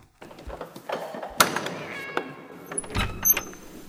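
A cat meows a couple of times while passing between someone's legs, amid indoor clatter, with a sharp knock partway through and shuffling household noises around it.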